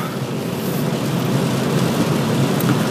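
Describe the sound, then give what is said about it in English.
Steady rain falls on a cold morning under a light gray sky, in a continuous, even hiss with a low rumbling undertone, constant throughout, with no voices present. “And, uh, but there have been a lot of fires around this area, so I'm really glad that it's raining right now.”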